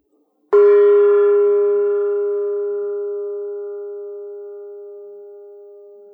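dinner bell ringing

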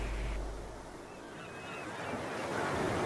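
flowing stream water

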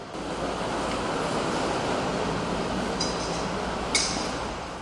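strong storm wind

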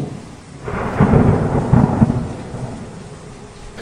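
rain with thunder

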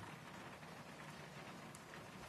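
rain falling

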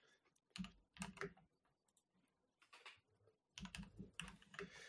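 computer keyboard typing

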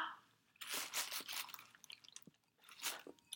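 someone drinking water

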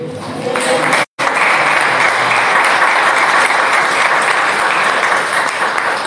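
audience applause

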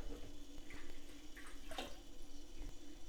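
water running

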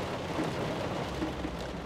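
heavy rain

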